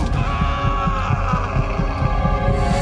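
An old man's muffled heartbeat thumps in a steady, quick rhythm of low paired beats, dull, over a continuous droning hum with no voices.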